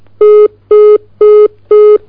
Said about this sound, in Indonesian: terputus sambungan teleponnya mungkin bisa dihubungi kembali atau diulangi kembali